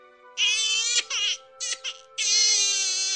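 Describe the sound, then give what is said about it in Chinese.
A baby wails under a large tree in loud, high-pitched bursts, with a couple of short breaks, then breaks into one long sustained cry. No one speaks. “这时，就听到大树底下传来婴儿的啼哭，老头子赶忙顺着哭声奔了过去。”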